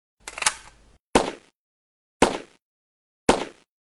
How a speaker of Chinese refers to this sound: 行云流水，连续的一阵枪声后，程亮很满意的放下枪，不用看。他都知道，这肯定是十环。